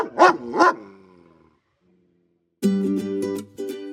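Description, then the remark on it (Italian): A dog gives two loud barks in quick succession, then after a brief silence a sustained, pulsing high whine-like tone follows. No one speaks. “Grazie al loro notevole senso dell'olfatto, infatti, canidi appositamente addestrati possono rilevare i vari tipi di esplosivo. Come utilizzare il cane?”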